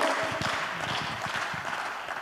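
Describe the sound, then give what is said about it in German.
Audience applause fills the moment, a dense wash of many hands clapping at a steady level without pause, with no voices rising above it. “Ich habe mir notiert, alle, die nicht geklatscht haben.”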